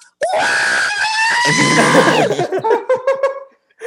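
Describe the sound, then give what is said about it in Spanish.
A voice imitates the screeching robot droid Arturito, holding a loud, high, wavering squeal for about two seconds before breaking into a quick run of chirpy, bleeping warbles. “Músico, yo el único talento que puedo hacer al mismo tiempo que manejar es gritar como Arturito.”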